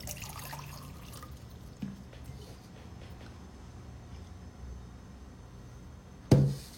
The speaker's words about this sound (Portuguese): Bom, abriu aqui, gente, só um instantinho, vou beber uma água, peraí.